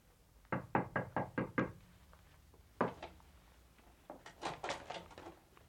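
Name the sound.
knocking on a door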